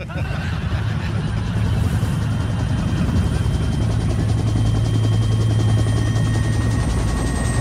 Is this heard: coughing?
no